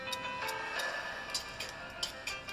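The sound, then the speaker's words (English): A clock ticks steadily on its own, a series of soft, evenly spaced clicks against a faint hum, fairly quiet. “And the time keeps ticking.”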